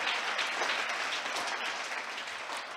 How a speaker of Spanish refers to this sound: Eh, un aplauso para las maestras. Gracias. Todas las que están participando, los niños, ¿eh?